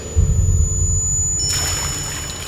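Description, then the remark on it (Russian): A low rumbling background gives way, about halfway through, to a sudden hissing burst of oily, foul-smelling water splashed onto a man lying on the floor to bring him round, spraying steadily for about a second, fairly loud, with no voices. “брызгал на меня маслянистой вонючей водой, приводя в сознание.”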